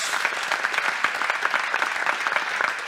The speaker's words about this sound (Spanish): denle ese aplauso a Dios